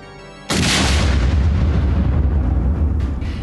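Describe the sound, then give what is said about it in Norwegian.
A held church-organ tone is cut off by a sudden, enormous crash of a car smashing through a church's two huge doors, followed by several seconds of loud rumbling and clattering debris as the whole building shakes. “Brått høres et enormt smell, og hele bygget rister.”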